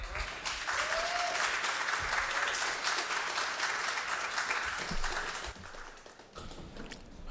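A crowd applauds steadily for a musical act just introduced on a live radio show, a dense wash of clapping that holds for several seconds before thinning out, with a few faint voices and whoops mixed in.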